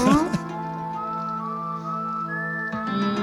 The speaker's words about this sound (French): un gars qui siffle.